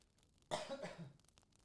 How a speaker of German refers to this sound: Warte mal, ich gehe mal weg und huste mal absichtlich.